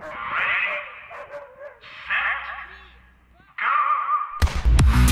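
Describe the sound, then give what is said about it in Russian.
Dogs bark and yelp in several sharp, excited bursts with short gaps between them, played back from a video of a sprinter racing against a dog, before a louder, noisier rush of sound at the end. “Мы же снимали ролик про спринтер против э, собаки. И там псы, ну, были просто, ну...”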